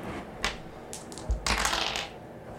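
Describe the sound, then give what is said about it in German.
Dice tumble across a soft surface: a brief rattle, a dull thump, then a longer muffled clatter as they roll and settle. Moderately quiet, with no voices. “Würfel auf Weichen.”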